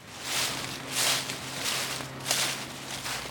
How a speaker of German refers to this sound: Da sind sie wieder, die Schritte im raschelnden Laub. Sie gehen querfeldein,